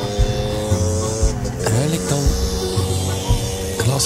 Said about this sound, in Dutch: Met de suit. stap ze op de scooter. Top in een pak. Helmpje op. En dan zijn ze weg.